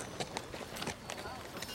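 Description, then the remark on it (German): Hurried running footsteps pound along in a quick, slightly uneven rhythm, about eight sharp steps, with a muffled background murmur underneath, heard after knocking at a door. “und du, ihr hört zuerst sehr, sehr hastige Schritte.”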